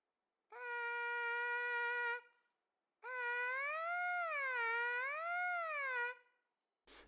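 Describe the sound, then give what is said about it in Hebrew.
Two loud, buzzy tones are made by buzzing closed lips into a trumpet mouthpiece alone, detached from the brass instrument: a steady held buzz, a short pause, then a longer buzz whose pitch slides up and down in slow waves. “ואז תסגרו את השפתיים ותעשו ואז את הזמזום הזה עושים בתוך הפייה, וזה נשמע ככה.”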